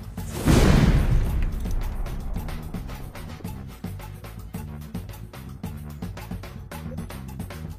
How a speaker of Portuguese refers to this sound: E outro barulho de explosão se faz.